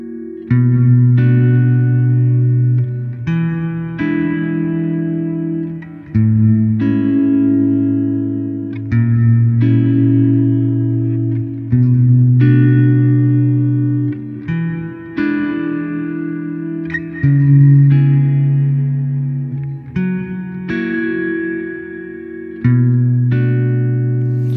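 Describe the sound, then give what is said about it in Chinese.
A musical passage of sustained, chord-like tones played through a cave reverb effect, which simulates an enclosed, narrow cave space of great depth, each note blurring into a long, smeared tail. The level stays loud and steady, with no talking. “再接下来呢，我们是一个叫做 cave 山洞混响，而这个呢不太常用，它模拟的呢是山洞的那种闭塞狭小的空间，但是呢它的纵深又非常的深。”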